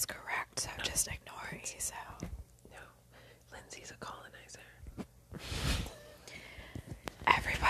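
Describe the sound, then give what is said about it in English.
Two people whisper back and forth in a playful whisper fight, breathy and hissing, with sharp airy bursts and short pauses between their hushed exchanges. “We're gonna have a whisper fight. I'm gonna whisper so fucking hard you'd have no fucking idea.”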